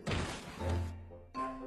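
A sudden thudding crash as the character Maokou, walking back through an empty castle, trips over something and tumbles to the ground. A lower humming tone follows, then a second short burst of clattering noise.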